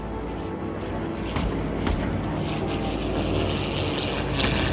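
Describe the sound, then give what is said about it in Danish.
A steady, loud roar of aircraft engines from an air battle over Tønder between British and German planes, punctuated by a few sharp bursts of gunfire cracking through at irregular moments, with no voices present. “Mm, ja, så var der blevet udkæmpet luftkampe over Tønder.”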